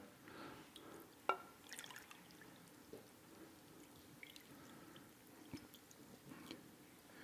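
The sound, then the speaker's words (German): Water is poured gently onto a dry, shriveled heart-shaped object that swells open as the water is added: a soft, faint trickle with scattered drips and small wet crackles, one sharper tap early on, and no one speaking. “Und dann, wenn wir Wasser dazugeben,”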